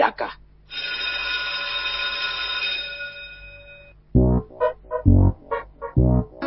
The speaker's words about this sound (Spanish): que haga sonar el timbre para dar inicio oficial a una nueva clase de la escuelita de verano de Toma